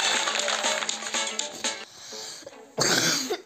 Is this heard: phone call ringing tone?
no